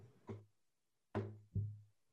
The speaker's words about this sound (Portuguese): Aqui, aqui é eu batendo no lado do violão.